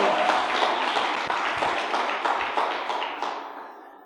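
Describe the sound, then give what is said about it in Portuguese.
A crowd bursts into sustained applause to praise God, dense overlapping claps filling the space at steady volume before gradually thinning and fading out near the end. “Meu Deus, aleluia, aplauda!”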